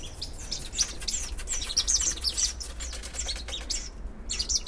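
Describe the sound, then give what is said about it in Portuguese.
A lively flock of small birds chirps and tweets constantly, with busy rustling and fluttering of wings underneath and a low steady hum in the background. “E ó, os bichos estão loucos aqui, ó.”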